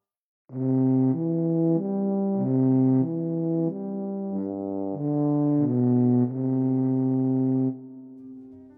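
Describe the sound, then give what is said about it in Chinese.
A tuba plays a slow, steady tune of low, full notes, each held for about half a second, before a final long note fades out. No voices accompany it. “哇，它的声音听起来低低的、粗粗的。就像一个大胖子在走路一样，啊，我知道了，他的名字叫做大号”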